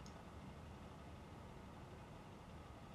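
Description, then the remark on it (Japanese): A faulty air conditioner in a hotel room in Tokyo, running on strong cooling, gives off a faint, steady clattering mechanical rattle over a low humming drone, continuous throughout, with no voices. “聞こえますあのエアコンの多分故障だと思うんですけどカタカタカタカタって音がするの聞こえますか これね今ちょっと冷房が強いからそんなに大きく聞こえないんですけど冷房を下げるとですねすごく音がでかくなるんですよ”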